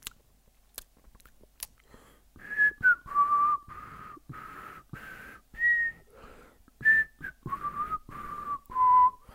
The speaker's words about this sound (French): Hein oui, ben, je suis désolé, le silence, ça m'angoisse. Alors je siffle, je siffle.